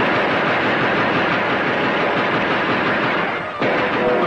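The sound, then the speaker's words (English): Rapid gunfire crackles without pause, a dense, loud barrage of shots that blurs into one continuous roar, cutting out for an instant near the end before resuming. “Those are the noisiest grasshoppers I ever heard. you, Christopher Columbus, were being shot at!”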